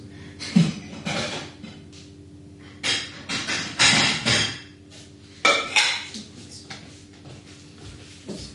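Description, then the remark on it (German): Two ceramic plates from crockery being sold clink and clatter in several bursts as they are used for a meal of soup, with sharp knocks and scrapes separated by brief quiet moments. “Wir benutzen jetzt zwei Teller von dem Geschirr, das ich verkaufe.”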